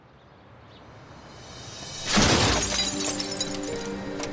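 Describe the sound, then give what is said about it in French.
A car's driver-side window is smashed by Clyde, of Bonnie and Clyde, in one sharp, loud burst, followed by a few seconds of glass fragments tinkling and scattering as the shatter fades. No one speaks. “Pendant que Clyde casse la vitre du côté conducteur, Bonnie fait le guet.”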